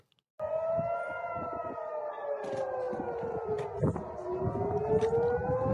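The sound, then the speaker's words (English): Air raid sirens wail loudly and continuously in the heart of Jerusalem as rockets come in, their steady tone slowly sliding down and back up, over a rumbling outdoor background after a brief moment of silence. “as the alarms, as the sirens go off, they're literally watching uh, rockets incoming.”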